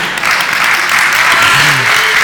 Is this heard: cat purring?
no